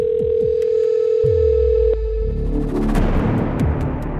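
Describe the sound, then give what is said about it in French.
A telephone ringing tone from a call to a house landline that goes unanswered sounds as one steady electronic beep for about two seconds. It then fades beneath deep booming rumbles and swelling low noise. No one speaks. “Alors, elle reprend sa voiture et rentre chez elle, saisit son téléphone et rappelle une énième fois sur le fixe de la chamade.”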